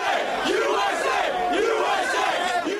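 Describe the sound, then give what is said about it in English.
A large crowd in New York and Washington cheers and shouts, celebrating the news that Osama bin Laden had been killed in a US operation. Many voices overlap in a loud, continuous roar with rising and falling yells throughout. “It was the news Americans waited 10 years to hear, and in New York and Washington, the crowds came out to celebrate.”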